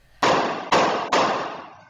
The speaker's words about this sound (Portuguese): O policial dispara e o garupa cai da motocicleta. O investigador abre a porta. O assaltante se esconde atrás do carro e atira.